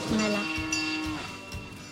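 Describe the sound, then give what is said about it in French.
A cow wearing a bell gives one low, drawn-out moo that holds steady for about a second before fading, with soft shuffling and background noise around it. “Elle arrive là. C'est celle, qui la cloche.”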